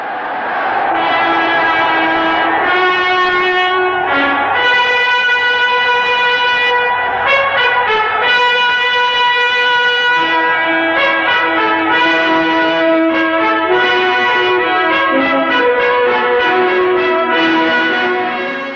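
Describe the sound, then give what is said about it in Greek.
Loud, sustained orchestral music with rich brass and bell-like tones playing a slow, solemn melody, chords swelling and shifting steadily throughout, with no voices over it, from Leni Riefenstahl's documentary film of the 1936 Berlin Olympic Games. “Η φρικτή μουσική που ακούτε μας έρχεται από ένα εξαιρετικό ντοκιμαντέρ που γυρίστηκε για ένα φρικτό σκοπό.”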